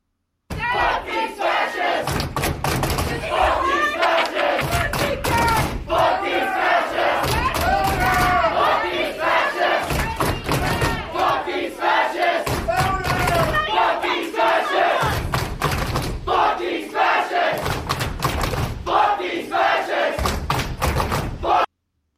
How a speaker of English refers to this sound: So yeah, that's a that's a message. loud, unified crowd there.